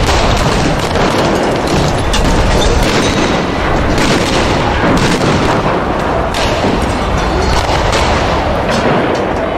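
Rapid, overlapping gunshots crack and boom from several directions amid a loud, chaotic roar of noise, continuous and dense throughout with no clear pauses, as police fire on picketers during a large street clash.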